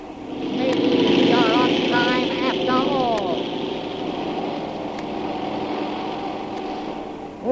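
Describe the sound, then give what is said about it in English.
Two airplane engines roar loudly and steadily as one plane takes off while another comes in, whining tones sweeping up and down early on as they pass and narrowly miss each other, the drone fading slightly but continuing to the end. “Hey, they weren't supposed to take off with that other ship coming in. Look, they're gonna hit!”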